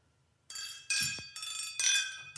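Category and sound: household object, glasses clinking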